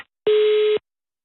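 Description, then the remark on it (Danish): A single steady electronic beep, the voicemail recording tone, sounds loud and clear for about half a second, then cuts off into silence. “Record your message at the tone.”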